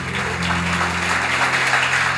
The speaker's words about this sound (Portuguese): Se é para Jesus, aplauda direito.